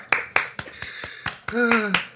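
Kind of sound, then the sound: human body sound, hand clapping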